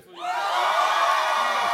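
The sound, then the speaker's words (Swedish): One side of a crowd breaks into loud cheering for God, swelling within a moment and holding steady, a dense wash of overlapping shouts and whoops with no single voice standing out. “Vänta, får vi bara höra hur de jublar inför Gud?”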